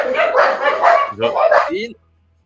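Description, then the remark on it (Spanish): Dogs bark loudly in a quick, overlapping flurry of several barks, then a brief pause and another burst before the barking cuts off abruptly. “Los perros están de acuerdo.”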